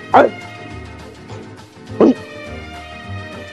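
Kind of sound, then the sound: animal, dog barking and yipping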